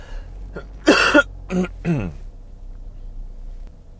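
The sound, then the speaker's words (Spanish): A short run of coughs and throat clearing, three or four rough bursts in quick succession, with a harsher double burst near the start, then fading into a quiet low hum. “Digo lo de la tos y mira.”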